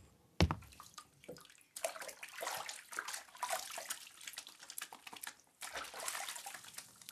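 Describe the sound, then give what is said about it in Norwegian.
Continuous splashing and sloshing of water in a washbasin, as hands are washed with soap and rubbed. It starts with a sharp splash and keeps going unevenly for several seconds, with no talking. “Her har jeg med et vaskevannsfat, såpe og et håndkle til deg.”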